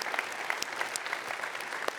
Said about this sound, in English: Come on, friends. That's awesome. Can we clap for that? That's awesome.